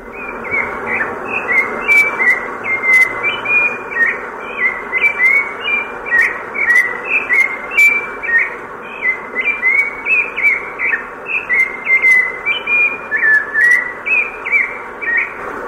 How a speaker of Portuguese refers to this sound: Vocês trouxeram a gravação do Sabiá Laranjeira aqui, vamos ouvir?